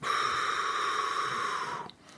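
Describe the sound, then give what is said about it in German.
A single long, deep belly breath, inhaling and exhaling, rushes steadily for nearly two seconds, airy and fairly loud, then stops abruptly into near quiet. No one speaks. “wenn man sich das wirklich bewusst sagen kann, stopp zu sagen und erstmal tief mit dem Bauch Luft zu holen.”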